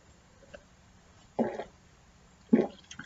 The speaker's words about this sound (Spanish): Se me trabó la lengua, voy a tomar un poquito de agua y vamos a decir.